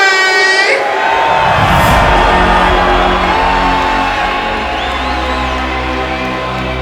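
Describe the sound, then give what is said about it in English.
A loud rave crowd roars and cheers continuously for a DJ about to step up, urged on by an MC, a dense wash of shouts, whoops and whistles with a steady low rumble underneath, staying at full volume throughout. “Can somebody make some noise for the A M C?”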